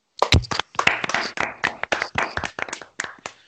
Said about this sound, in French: Micro ouvert, applaudissements.